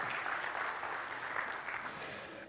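A church audience applauding, many hands clapping in a dense, steady patter that holds at an even level throughout before easing off at the very end.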